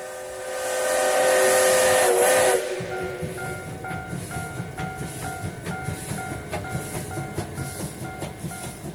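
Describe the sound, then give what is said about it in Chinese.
The Yangon circle train in Myanmar, travelling clockwise, sounds a loud, steady whistle for about two seconds, then settles into a rhythmic, hissing chug of steam and wheels that pulses evenly to the end. No one speaks. “仰光：環城火車的庶民風情”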